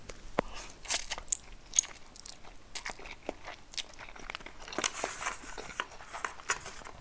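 Crisp crunching and chewing of food while eating lunch, with repeated sharp bites and crackly mouth sounds in an irregular rhythm, heard alone without any talking.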